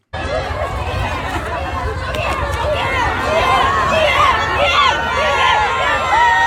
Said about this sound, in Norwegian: for vi har fått nå eh, et lite klipp av eh, fansen din som lager lyd i Sør-Korea, la oss, la oss høre ja. på det.